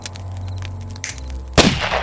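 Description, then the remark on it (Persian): A single sharp rifle shot, fired with the rifle placed against a man's arm, cracks out loud near the end, its echo fading quickly over a steady low background hum. “خسرو از درد به خود پیچید سهراب بالا و پایی میپرید دوباره دوباره این بار تفنگ را روی بازویش قرار داد”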